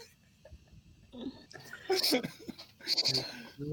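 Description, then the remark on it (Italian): Two wavering, goat-like bleats rise out of low murmuring, the first near the middle and a shorter one toward the end, both fairly loud, apparently voiced by a person imitating a goat crossing the scene. “Stacco, una capra che attraversa la scena”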